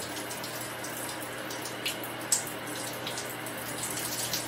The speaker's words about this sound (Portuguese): E aí eu tampo a audição e deixo a água correr. Cara, aí é uma delícia. Eu fico prestando atenção na água correndo, tá ligado?